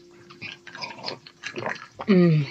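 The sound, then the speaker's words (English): Gulping and slurping as someone thirsty drinks, a quick run of wet swallows over about two seconds, ending in a louder, voiced sigh of relief that drops in pitch. “Um, one sec, I'm just thirsty.”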